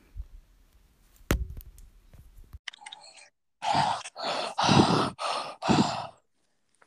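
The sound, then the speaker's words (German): A person deliberately breathes very loudly: a run of about five heavy, rushing, exaggerated breaths in quick succession, preceded by soft clicks and low rumble. No one speaks. “Ich wollte nur mal richtig laut atmen.”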